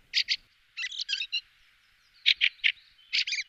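A fieldfare gives harsh, chattering calls in short bursts of two to four notes, separated by brief pauses, clear against a quiet background.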